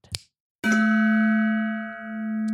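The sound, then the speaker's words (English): A single loud metallic strike of a gong, preceded by a brief tap, then a long ringing tone with steady overtones that sustains and gently wavers in volume without fading. “You won't remember anything when the sound of the gong happens.”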